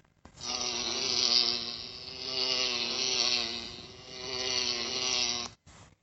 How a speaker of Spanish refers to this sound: Pequeños remolinos jugaban con las hojas que caían bailoteando en el aire, y un rumor de abejas flotaba en la tarde de verano.